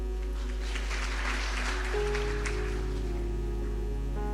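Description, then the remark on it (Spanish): An audience applauds in a dense, steady wash of clapping, and about halfway through sustained musical tones come in beneath it while the applause continues. “Aplauso para venir.”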